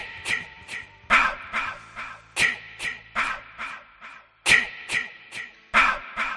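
A breathy, whispered chant of short syllables, "ki, ki, ma, ma, ma", repeats in quick rhythmic clusters, each hiss trailing off in an echo, an eerie horror-film leitmotiv heard when Jason appears, taken from Pamela's line "kill, kill mommy"; no other voices.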